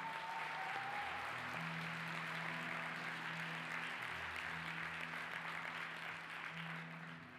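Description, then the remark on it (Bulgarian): An audience applauds two boys as they sit down, a dense, steady roar of clapping that carries on for several seconds, with low sustained musical tones humming underneath before it eases slightly at the end. “Ръкопляските на тия два момчета, докато сядат.”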